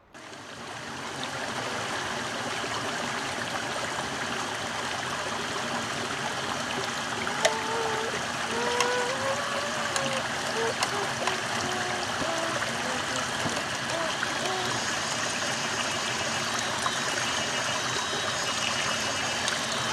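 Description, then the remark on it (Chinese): A babbling stream gurgles and rushes steadily for the whole stretch, a dense, even wash of water noise, with faint chirpy tones and a thin high buzz of summer cicadas drifting in now and then. “聪明的听众应该可以清楚的听到，这个大概就是我们蓝星潺潺的溪水声，还有夏天里蝉的叫声，然后还有小孩子的声音啊。”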